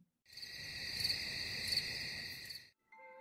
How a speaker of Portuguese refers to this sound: E aquela era apenas mais uma dessas noites. Tudo estava quieto, mas lá longe ouvia-se o barulho de alguns carros. O canto de um grilo